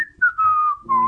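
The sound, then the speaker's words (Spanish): A short, cheerful whistled tune of a few gliding notes, clear, with a soft low hum underneath toward the end. “Y con … Cocinas suenan así.”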